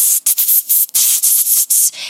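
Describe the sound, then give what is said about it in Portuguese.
A voice imitates a pressure cooker releasing steam while cooking beans, with a rapid series of loud, hissing bursts, about eight short sharp pulses separated by brief gaps, bright and airy. “A panela de pressão, né? Que você tá fazendo feijão.”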